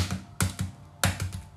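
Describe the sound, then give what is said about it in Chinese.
A century egg's shell is cracked with sharp, dry knocks in two bursts, each a loud strike followed by one or two softer taps, with no talking. “你怎么还烂不了啊？它终于碎了。”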